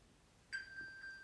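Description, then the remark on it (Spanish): A mobile phone's locator alert, triggered from a smartwatch, sounds faintly from a bedroom where the phone lay under a sleeping child: a steady, high electronic beep tone starts abruptly and holds without a break, with no voices. “¿Tenés el relojito en la mano como para llamarlo? A ver, vamos a, vamos a ubicar mi celular.”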